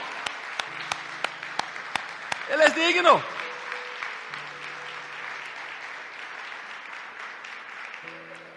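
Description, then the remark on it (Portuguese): A church audience applauds in praise of Jesus Christ in a dense, steady wash of clapping that lasts the whole clip, with a few sharp individual claps early on and a man's voice calling out briefly over it. “De un aplauso a este Rey maravilloso que tenemos, iglesia.”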